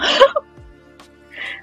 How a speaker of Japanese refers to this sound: ゲップした。